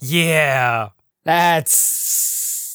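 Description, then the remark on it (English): A man speaks a couple of words, then gives a long, steady, breathy hiss through his teeth, the improvised creepy hiss from a scene in the film Silence of the Lambs, lasting about a second. “That scene that scene from Silence of the Lambs is another famous scene and that hiss was improvised.”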